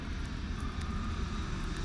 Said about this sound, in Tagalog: Doon nasaksihan ko yung kinatatakutan ng mga tao. Palapit ng isang eroplano sa gusali na tinatayuan ko.